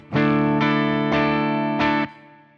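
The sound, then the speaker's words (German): Electric guitar with a light overdrive boost plays four strummed chords in a steady rhythm, harmonically rich and slightly gritty, then rings out and fades, with no one talking. “Also was wir ja eben schon gesagt hatten, wir haben hier ähm, einen Overdrive, der jetzt eigentlich nur so ein, so ein kleiner Boost ist.”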